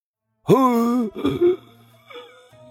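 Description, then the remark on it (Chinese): A voice imitates an old doctor dozing at a desk in a clinic, snoring: a loud, drawn-out groaning inhale followed by a rough, rattling snort, then a brief quieter murmur as it trails off. “那老头连呼噜都打起来了。”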